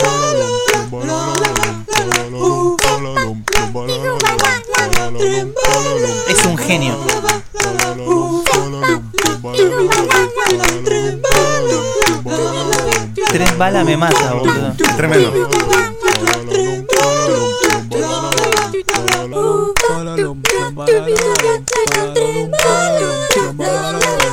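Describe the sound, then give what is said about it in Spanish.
Hands clap in a steady rhythm throughout, sharp, layered over tonal background sound while excited voices talk over it. “Está, aplaudiendo al.”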